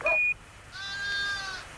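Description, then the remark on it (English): A short electronic beep, then a single drawn-out sheep bleat with a wavering, nasal tone, fairly close and clear against a quiet background with no talking. “A new pinnacle in man's achievement as America became the very first nation to put a sheepdog trial on the moon.”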